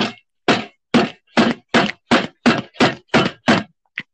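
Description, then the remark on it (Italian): A hand pounds on a desk about ten times in a steady, quick rhythm, each blow loud, ending with one softer, shorter knock, imitating a teacher banging on her desk to demand silence. No talking. “Sulla cattedra finché non la puoi esplodere io mi sono appena spaccato la mano, come fa a farlo?”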